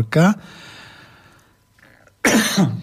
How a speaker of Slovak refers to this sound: Á, jej, to není dobré, keď začínam kašľať.